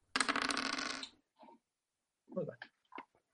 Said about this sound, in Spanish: Ah, tira cuatro dados.